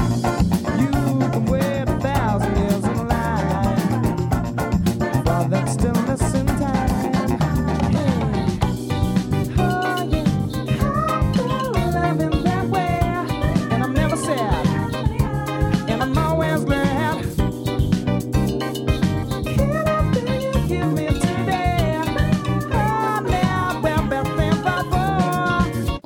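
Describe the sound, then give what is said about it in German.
An upbeat funk track with a driving samba-style Latin groove, busy percussion and bass under bright melodic lines, playing loud and steady throughout with no talking. “Da hört man dann Samba und Latin und da hören wir jetzt mal kurz rein.”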